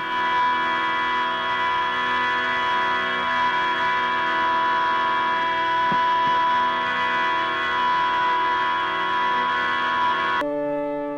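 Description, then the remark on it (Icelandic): A 1963 performance by La Monte Young's group of Eastern-inspired drone music: many steady, overlapping tones held unchanging at constant loudness for about ten seconds, dense and buzzing with bright upper harmonics, ending in a sudden cut to a thinner chord. “Lamonti Young vann með dróntónlist að austrætni fyrirmynd þar sem flýtjendur halda sömu nótonum í langan tíma.”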